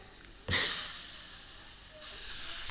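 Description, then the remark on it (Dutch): A sudden loud burst of pressurized gas hissing from a soda maker carbonating water at about half a second, fading into a steady hiss, then a second softer hiss rising near the end. No talking. “Ik moet alleen wel even zelf de bubbels toevoegen.”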